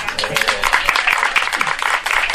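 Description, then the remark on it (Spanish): An audience claps together in steady, dense applause for the crab, a loud crackling wash of many hands that holds throughout without any voices breaking through. “Vamos a darle un aplauso al cangrejo.”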